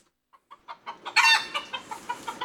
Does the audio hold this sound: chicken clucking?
yes